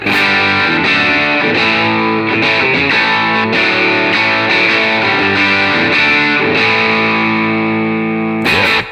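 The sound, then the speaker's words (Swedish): Overdriven electric guitar on the bridge pickup, played through a Benson preamp: loud, bright strummed chords and ringing notes over about nine seconds, upfront with no talking. “Men vi, vi lyssnar med, på med Benson Preamp. Mm. Stallnyckel då?”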